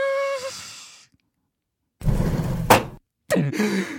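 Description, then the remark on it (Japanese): Storm shutters (amado) on a house window are slid shut: a rough, rumbling slide of the shutter lasting about a second, ending in a sharp clack, followed by a second scraping rattle. A brief breathy, tonal sound comes just before. “雨戸を閉めないでくれたらずっと見ていられたのに”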